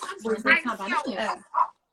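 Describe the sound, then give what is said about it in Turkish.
People talk for most of the moment, then a single short, sharp bark from a pet dog named Cookie pops out just as the voices stop. “Komşu Böyle şey sinirli emek Sinirleniyor bence şu an bize. cinsi, cinsi ne köpeğinizin?”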